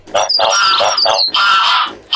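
A loud, overlapping racket of hundreds of birds squawking and arguing at once, with harsh, grating calls and high shrill notes in quick bursts for about two seconds.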